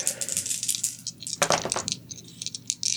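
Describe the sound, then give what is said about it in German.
A person rolls dice: they rattle and clatter across a hard tabletop in a quick burst of sharp, overlapping clicks, loudest midway through, then a few scattered taps as they settle. No voices. “dann würfel ich mal.”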